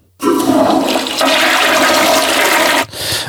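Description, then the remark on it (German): A toilet flushes with a loud rush of water lasting a few seconds, cutting off sharply before a brief softer swirl of refilling water. “Auf der Toilette.”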